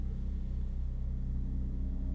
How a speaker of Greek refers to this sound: Αεροπλάνα πολλά. Από πάνω από το κεφάλι μου.